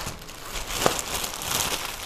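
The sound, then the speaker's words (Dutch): Continuous plastic crinkling and rustling of a bread bag being handled as four slices of bread are taken out, with one sharper crackle midway; steady, moderately quiet, no talking. “Ik, heb, eh, ik ga vier boterhammen pakken.”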